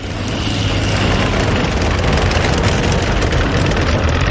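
A tracked motorcycle's engine roars as it passes beneath a balcony on a town's main street, a loud, steady low rumble with gritty mechanical rattle that holds at full strength for the whole few seconds.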